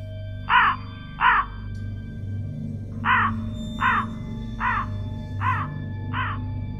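A crow caws seven times: two quick calls, a short pause, then five evenly spaced caws. The harsh calls stand out over a low, steady background rumble.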